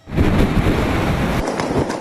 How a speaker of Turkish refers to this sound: Saatteki hızı 160 kilometreye ulaşan rüzgar ve yoğun yağış hayatı olumsuz etkiledi. Kasırga gücündeki rüzgarlar nedeniyle ulaşım aksadı.